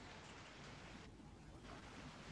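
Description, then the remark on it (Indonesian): Steady rain hisses without a break, a dense, even wash of noise that fills the whole moment. Nobody speaks, and it stays soft and constant. “Tolong ulang lagi di sini hujan agak soalannya.”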